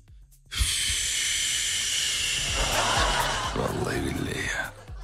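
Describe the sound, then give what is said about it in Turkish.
A long, deep inhale of icy air, loud, a steady airy rush lasting about four seconds before cutting off, with no talking over it. “O buz gibi havaya indiğinde böyle derince bir nefes çekeceksin içine.”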